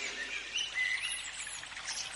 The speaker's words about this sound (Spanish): En ella Vamos a ver muchos árboles y plantas, flores, el canto de los pájaros, el perfume de las flores, de la brisa y de los árboles.